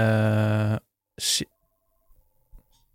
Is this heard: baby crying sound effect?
no